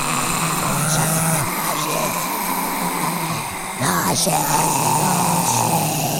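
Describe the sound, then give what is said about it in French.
Low, drawn-out guttural groaning from hungry people behind a window, like zombies moaning, rasping on continuously for several seconds over a dense background murmur, with a brief dip and a rising moan near the end. “les gens commencent à être affamés. Euh, certains, on dirait des, des zombies dans Walking Dead. Écoutez.”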